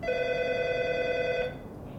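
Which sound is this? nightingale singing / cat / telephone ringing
telephone ringing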